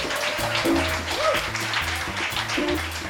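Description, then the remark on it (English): A live audience at a Mad Toast Live recording at the Brink Lounge in Madison, Wisconsin, claps and cheers steadily throughout, a dense wash of applause with occasional whoops rising above it, sustained at an even, fairly loud level. “Let's hear from the live audience.”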